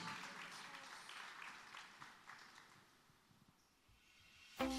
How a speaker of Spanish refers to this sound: Con un aplauso de alabanza adoramos, exaltamos el nombre de nuestro Dios.